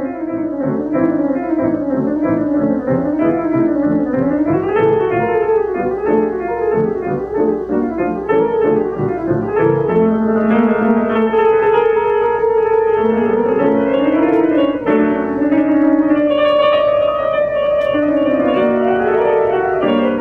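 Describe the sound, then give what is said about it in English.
A song plays on its own at steady volume, with layered tonal instruments weaving sliding, wavering melodic lines over a sustained low bed, colored by echo and effects processing; no one speaks. “Um, I picked out a song. We're just going to cut to it really quick.”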